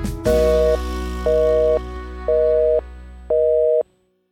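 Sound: telephone busy signal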